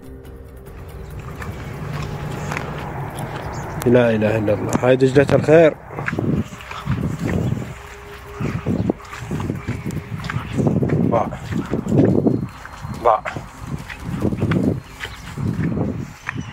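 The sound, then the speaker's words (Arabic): Steady footsteps of an Iraqi man crunch across barren, dry ground in Iraq cracked deep by drought, land until recently covered by the waters of the Tigris River, at an unhurried walking pace, with a man speaking briefly and exclaiming near the start. “لنستمع إلى خطوات أقدام عراقي يسير على أرض قاحلة حفر الجفاف فيها شقوقا غائرة كانت حتى وقت قريب مغمورة بمياه نهر دجلة”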